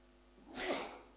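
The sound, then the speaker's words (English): A single sneeze, a short breathy burst that swells and fades within half a second, soft with no talking. “bless you”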